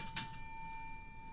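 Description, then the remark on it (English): A single bell ding, struck once and left to ring with a steady, bright shimmer that lingers to the end. It is fairly soft and there is no talking. “That was the wrong bell.”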